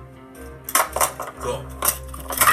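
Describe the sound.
Fiddling with a cheap, round plastic smoke detector: a handful of irregular clicks, knocks and rattles at moderate volume, with a brief spoken word alongside.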